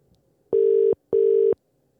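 A phone ringback tone on an outgoing call: two short, steady electronic beeps in a quick double pulse, clear and loud over a faint background hum, with no one talking.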